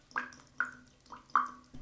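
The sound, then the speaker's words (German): Water drops fall one after another in a slow, slightly uneven rhythm, each a clear plink with a short ringing tone. There is no talking. “Und so klingt ein Wassertropfen.”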